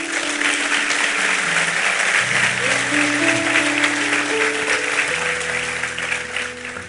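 An audience applauds, a dense, steady wash of clapping that holds at an even loudness throughout, with sustained organ or keyboard chords ringing beneath it.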